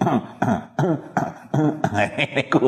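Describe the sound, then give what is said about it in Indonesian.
A voice makes a quick series of voiced "ahem"-style throat clearings, about six short bursts in a row with brief gaps between them. It sounds more like a deliberate imitation than a real cough. “no ya dah dehem dehem ngono arek gak dehem dehem ya berarti gak tau ngaji”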